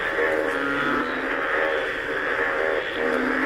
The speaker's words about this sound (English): here's what I want you to know it's not just a couple of frogs outside. You would not sleep for days on end with these frogs.